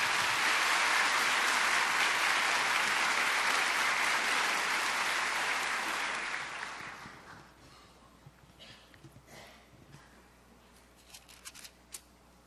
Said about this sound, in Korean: 우리 목사님 큰 박수로 환영하며 말씀 드리겠습니다.